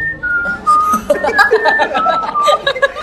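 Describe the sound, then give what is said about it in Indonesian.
A person whistles a short, wavering tune, the notes sliding between pitches, with some soft chuckling mixed in around the melody. “untuk siul-siul gini iya.”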